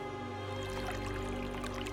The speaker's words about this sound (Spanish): El agua de un río.